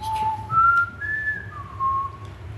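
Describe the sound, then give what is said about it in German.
Someone whistles a short four-note tune from the Hunger Games film, each tone held briefly and stepping up then down in pitch, clear over a low background hum. “Jetzt pfeift nur jeder von euch den Hunger Games Film.”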